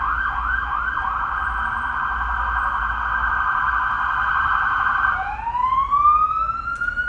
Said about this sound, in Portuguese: Vamos esperar um pouquinho. Só passar aqui, ó, uma sirene.